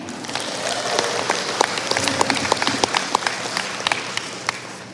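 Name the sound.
audience applause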